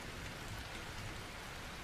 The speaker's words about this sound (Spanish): Y toda la noche llovió.